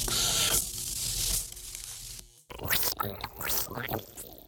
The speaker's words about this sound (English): Are those the actual sounds of uh, catfish there? Uh, yes. Uh, usually, you have to squeeze them a bit to get that sound out of them.